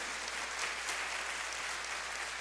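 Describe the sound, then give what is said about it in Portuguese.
A large crowd applauds steadily for Jesus, a dense, sustained wash of many hands clapping together with no pauses and no voices standing out. “Você pode dar uma salva de palmas bem forte para Jesus?”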